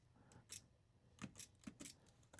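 Soft mechanical clicks from braille display keys being pressed while typing a file name, several short taps in an uneven rhythm, fairly quiet, with no talking.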